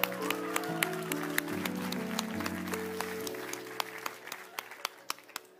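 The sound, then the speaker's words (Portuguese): An audience applauds a woman, clapping steadily over a sustained, droning musical chord, the applause gradually thinning out into a few scattered, sharp individual claps by the end. “Vamos dar palmas”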